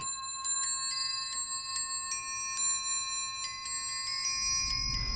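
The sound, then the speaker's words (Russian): An English table musical clock, made in London around the 1740s, chimes a bright tune on small bells, notes striking one after another in a steady, ringing melody with long overlapping decay. A faint low rumble creeps in near the end. “И у нас в мастерской есть часы с колокольчиками, с колокольной музыкой.”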